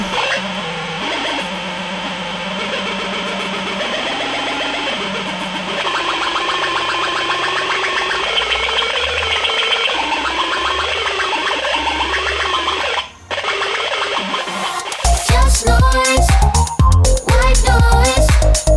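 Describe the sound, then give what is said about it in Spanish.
Circuit-bent electronic gadget noises: a dense, buzzing wall of warbling tones and drones that briefly cuts out, then breaks into loud, choppy, stuttering glitch bursts. No one speaks. “Desde una, mirándolo como más místicamente, es como tratar de sacarle los sonidos que están escondidos a la, al espíritu del aparato.”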